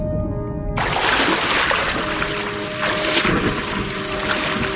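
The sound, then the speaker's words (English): A brief muffled, humming underwater tone gives way to loud, steady rushing and churning water as a diver frantically swims up toward the ocean surface, with no voices. “When he finally snaps out of his daze, he frantically swims for the surface of the ocean while removing the emergency flare from his bag.”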